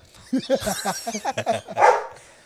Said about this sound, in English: let's capitalize on the dogs being in the background right?